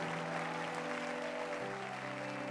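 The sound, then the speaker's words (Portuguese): A crowd claps steadily and loudly throughout in applause for Jesus during worship, a dense, continuous wash of applause with a sustained keyboard-like chord underneath that shifts to a new chord partway through. “Você pode aplaudir ao Rei Jesus aí?”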